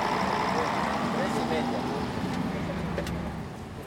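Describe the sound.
A steady, droning bus engine rumbles from inside the moving bus in Spain as it turns off the main road and heads down a hill toward a small town, a continuous low hum with faint murmuring voices underneath, easing slightly quieter toward the end.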